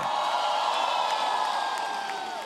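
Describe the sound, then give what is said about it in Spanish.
An audience erupts in loud, sustained shouting of "glory" and cheering, many voices blending into a roar that holds steady before fading slightly at the end. “Alguien de un grito de gloria.”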